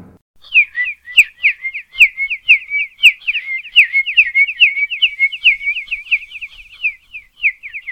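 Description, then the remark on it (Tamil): A voice mimics a flock of sparrows chirping together in a garden, producing rapid, continuous high-pitched whistled tweets that overlap in a busy, lively chatter for several seconds, fairly loud. “அடுத்தபடியாக இந்த குருவியெல்லாம் ஒரு கார்டனில் சேர்ந்து சத்தம் போட்டால் எப்படி இருக்கும் அப்படின்னு ஒரு சின்ன கற்பனை”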